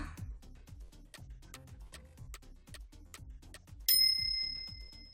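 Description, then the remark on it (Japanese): A single bright, ringing LINE messaging app notification chime sounds near the end and lingers as it fades, over a steady, rhythmic ticking beat that runs throughout. Nobody speaks. “未読ですうんまあ30分くらいじゃまだもう一回 LINE 入れとくか”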